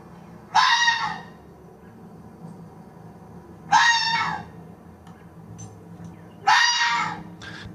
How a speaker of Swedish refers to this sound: Så det är alltså, så här låter en räv.